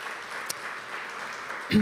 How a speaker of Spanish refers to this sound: Le damos un aplauso. Gracias.